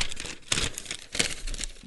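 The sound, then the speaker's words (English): Crackly crinkling of an old piece of paper, a bill of some sort, being handled, with several sharp bursts of rustling and crunching over about two seconds, no voices. “Hey, here's an old piece of paper I found.”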